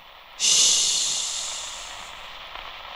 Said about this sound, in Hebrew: ואם יש לכם רדיו טוב ואתם נמצאים בין תחנות, תשמעו את הרחש הזה.